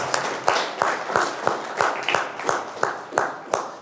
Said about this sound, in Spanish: Les pido un aplauso a los que estamos y allá en su casa denle un aplauso a los del coro también por todo lo que hacen con nosotros.